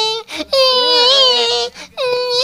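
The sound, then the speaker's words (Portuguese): An adult voice mimics a whiny, whimpering spoiled child in three drawn-out, wavering wails with short breaks between them, loud, with no ordinary talk. “Mas se tem uma coisa que eu odeio na minha vida é ouvir criança miando, cara.”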